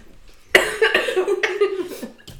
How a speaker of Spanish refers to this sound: Break para, toser.